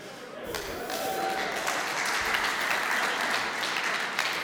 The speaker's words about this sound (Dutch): Eh, kijk, jullie klappen nu allemaal, maar niemand begrijpt dit.